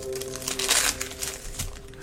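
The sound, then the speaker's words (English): Crinkling of a plastic-like wrapper being pulled open on a freeze-dried ice cream that looks like a choc ice, irregular crackly bursts peaking midway, with a faint steady hum underneath and no talking. “Oh, it's quite, Looks like a choc ice. It's quite well wrapped.”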